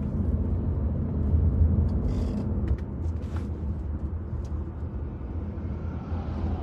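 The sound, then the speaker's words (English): A steady, heavy engine rumble from a Cranston Police escort and a fire truck rolling past, with a few brief clanks and creaks over the drone and no siren. “Here's a fire truck. Folks, how about that? Thumbs up for the Cranston Police. Weaving one through.”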